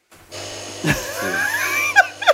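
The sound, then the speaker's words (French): A coffee maker brewing coffee gurgles and sputters over a steady low hum, with whistling hisses and a couple of sharp bubbling bursts near the end. No one speaks. “Oh, le, bruit. de la cafetière, tu gardes aussi ou pas”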